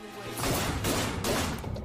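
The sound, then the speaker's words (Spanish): Three sharp, loud .22-caliber gunshots burst out in quick succession, each one a harsh crack with a brief ringing tail, without any voices. “Y luego escuchó los disparos.”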